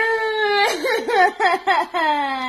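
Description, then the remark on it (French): A child who is being bullied at school whimpers and cries, a drawn-out wail breaking into several shaky, wavering sobs before trailing off into a long, steady moan. “J'espère que vous voyez bien qu'est-ce que ça fait à mon enfant.”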